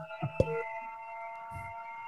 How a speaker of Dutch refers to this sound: Oh, daar gaat een alarm af. Dat was ik niet.